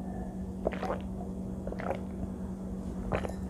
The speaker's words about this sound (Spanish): Así que, de verdad, Venezuela y a quien no le gusta una Cuba libre, aunque ahorita no estoy tomando Cuba libre, estoy tomando es agua.